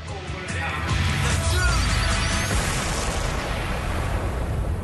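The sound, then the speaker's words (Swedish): A bomb explosion sound effect for a bomb being dropped during a submarine hunt: a heavy, booming blast bursts in about a second in and rolls on as a loud, sustained low rumble with crackling noise until the end. “Och där släpper vi bomben och det låter så här.”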